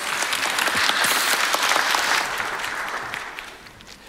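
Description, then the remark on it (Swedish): Sustained audience applause, a dense wash of many hands clapping steadily, holding loud for about three seconds before gradually thinning and fading, as actress Nina Gunke and Claes Brodd are welcomed up at an event about Alzheimer's disease. “Vi applåderar va?”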